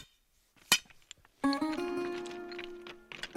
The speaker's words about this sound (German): Hier brechen wir die manuell noch mit einer Eisenstange und einem dicken Hammer. Reißen wir die aus dem Berg und dann mit einem Meißel und mit dem Hammer brechen wir sie auf und breiten sie für den Bau vor.